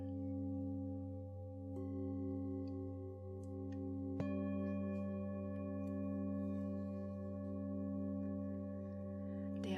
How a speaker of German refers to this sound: der hohe Ton der kleinen Klangschale holt dich wieder ganz hierher zurück.